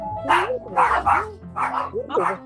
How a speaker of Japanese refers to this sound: ちょっとあのうるさくてすいませんが。とんでもない、お、あの、お犬さんがね。はい。お犬が。お犬が、あの、本当になってしまった。お犬が吠える。